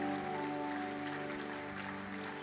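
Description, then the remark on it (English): A church audience claps steadily in the morning for people who came to the front: a dense patter of many hands that holds level throughout, with a sustained keyboard chord droning underneath. “Why don't we give them a clap this morning?”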